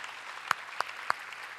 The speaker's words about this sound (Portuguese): Ó, oh, que benção. Aplaude esses caras. Você serve, irmão.